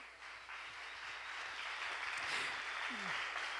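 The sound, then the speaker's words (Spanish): An audience claps together for God in a steady, dense wash of applause that swells slightly and holds at a moderate level, with a few faint voices mixed in. “¿Cuántos dicen amén y le dan un aplauso a Dios?”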